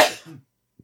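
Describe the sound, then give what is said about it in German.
A single sharp sneeze: a loud hissing burst that trails off into a brief voiced tail, then near silence apart from a faint, tiny sound just before the end. “Gesundheit.”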